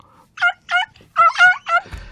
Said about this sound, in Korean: 얘 소리 들을 때마다 웃겨요. 암탉 소리예요. 한 번 더요.